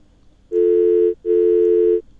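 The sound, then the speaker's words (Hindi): The ringback tone of an outgoing phone call sounds twice, two steady buzzing pulses with a short gap between them, before the call is answered. It is loud and alone with no talking. “दो बार बेल जाने के बाद कॉल उठ गई”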